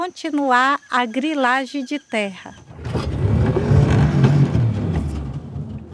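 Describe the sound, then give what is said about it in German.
A motorboat engine drones steadily and fairly loud with a rough, rumbling wash of noise as the boat travels on the slow, mirror-smooth Rio Jassi Paraná, starting after a short stretch of someone speaking and continuing alone to the end. “Mit dem Motorboot geht es über den Rio Jassi Paraná.”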